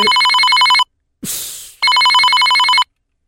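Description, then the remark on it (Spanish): A telephone rings loudly as a man calls his wife: two trilling bursts of about a second each, separated by a short hissy, rustling noise. No one speaks. “un hombre le llamó a su mujer.”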